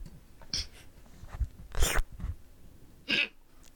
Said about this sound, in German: Gesundheit.